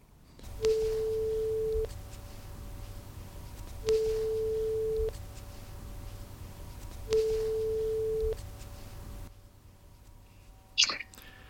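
The ringback tone of an outgoing phone call rings three times, each steady electronic tone lasting over a second with pauses between, over a hissy line, before a click as the call is picked up.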